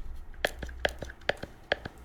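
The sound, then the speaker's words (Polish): A remote control clicks in a steady rhythm: about five crisp, sharp clicks, each followed by a softer tick, repeating roughly twice a second over quiet background hiss. “jesteś w stanie na przykład zademonstrować, jaki ten pilot wydaje dźwięk w ogóle? Czy on jakoś głośno klika, pracuje, czy...”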